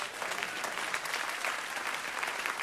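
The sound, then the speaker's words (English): An audience claps for Jesus, a dense wash of many hands clapping at once with no clear rhythm, holding an even, moderately loud level throughout. “Clap for Jesus.”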